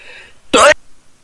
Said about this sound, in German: Ich musste mal kurz niesen.